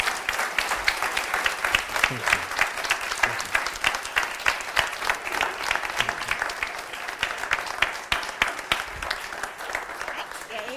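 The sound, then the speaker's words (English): Sustained audience applause in the W Lofts for people returning to their seats, thanking them for their work: many hands clapping in a dense, crackling wash that stays steady and fairly loud for about eleven seconds, with no one speaking over it. “Um, so, would you, while they're returning to their seats, would you just once again give them a round of applause for the work they're doing and for being here with us?”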